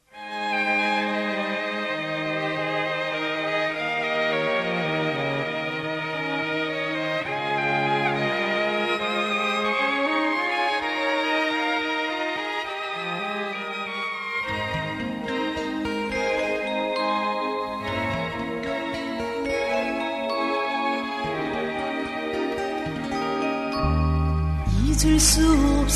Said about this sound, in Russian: А теперь послушайте песню «…».